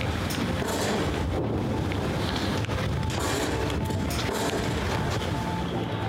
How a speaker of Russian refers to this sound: Звуки стрелкового боя – это как раз на окраинах, на западных окраинах, получается, ну бой да, идет? Да, конечно, конечно.